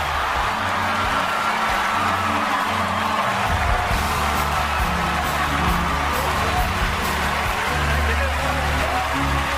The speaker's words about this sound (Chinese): 刚才这个呃欢呼呢，这个就是昨天在奥斯卡颁奖典礼当中呃宣布的这个最佳影片啊，呃被呃 Parasite 呃寄生虫呃这个南韩的电影呢所夺得了。